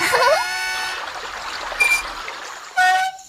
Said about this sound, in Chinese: 他把水龙头关了。